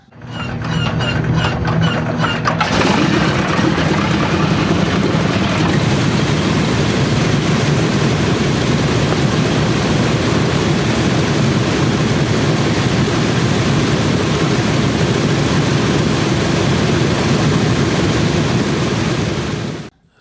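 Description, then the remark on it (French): A B-17 bomber engine starting on the ground: a few seconds of whining, clattering cranking, then it catches and roars into a loud, steady rumble that continues to the end. “ce que vous venez d'entendre, hein, c'est le démarrage au sol d'un moteur de B-17.”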